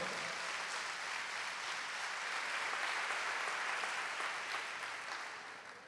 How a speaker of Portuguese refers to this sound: Aplauda ao Senhor.